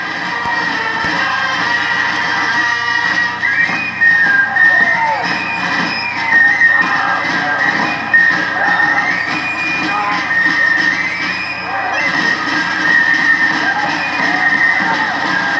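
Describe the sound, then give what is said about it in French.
A shrill, high fife melody of held notes stepping up and down in pitch, played loudly over a dense, continuous crowd din at the Dunkirk carnival; the melody is a Landes tune. “D'autant que dès qu'on commence à, étendre son champ d'écoute, on s'aperçoit que la même mélodie est jouée à Dunkerque dans le cadre du carnaval on va l'entendre et au milieu d'autres mélodies, à un moment vous entendrez c'est joué au fifre.”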